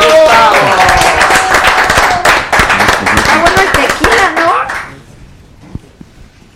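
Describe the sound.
A burst of clapping with voices cheering and calling out over it, loud, lasting about five seconds before cutting off into near quiet.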